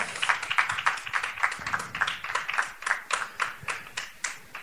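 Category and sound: crowd, audience applause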